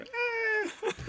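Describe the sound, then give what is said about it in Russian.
A voice imitates the cry of a dying Gastrea monster: a sustained, wavering high-pitched wail lasting about half a second, then trailing off into breathy, strained vocal noises. “и вот нужно вставить звук вот это, когда он руку дергал, так вырывает и бьет эту Гастрею, а Гастрею в тот момент, когда умирает, вот криком таким своим.”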